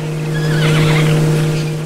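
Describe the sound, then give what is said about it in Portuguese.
A jay, among its varied vocalizations, mimics a horse's neigh: one drawn-out, wavering whinny lasting under two seconds, fairly loud, over a steady low hum, with no talking. “E entre esses sons tinha o relinchar.”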